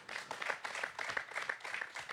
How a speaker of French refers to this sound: Applaudissements pour Stéphane Lestrade